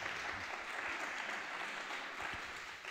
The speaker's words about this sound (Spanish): Y estoy hablando del director Carlos Sedes. Un aplauso para Carlos.